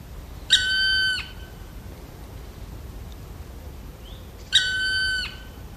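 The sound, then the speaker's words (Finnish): A black woodpecker, having climbed higher along a tree branch, gives two long, ringing, slightly nasal territorial calls, each under a second, about four seconds apart, clear against a quiet outdoor background. “Se kiipeää oksaa pitkin ja menee hieman ylemmäs. Ja siitä sitten kuuluttaa omaa reviiriä.”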